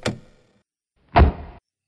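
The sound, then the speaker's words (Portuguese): A car door slams shut with a heavy, low thud, preceded a second earlier by a lighter, sharper knock, as a man gets out of his car in a garage with its doors closed. No voices, just the two short impacts in otherwise quiet surroundings. “sai do seu carro com porta, as portas da garagem fechadas e ele vai abrir a porta do, da cozinha.”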